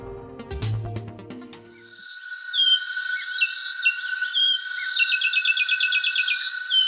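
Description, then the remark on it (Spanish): A finch, a 16-centimetre bird with a grey head, two black crown stripes, a black eye stripe to the nape and a cone-shaped bill, sings short, bright chirps and a quick rapid trill over a steady buzzing insect chorus, following a brief musical opening; moderately loud. “Así canta el pinzón con el rostro, un pájaro de 16 centímetros de altura que tiene la cabeza gris con dos estrías negras en la coronilla y una lista ocular negra que se prolonga hasta la nuca.”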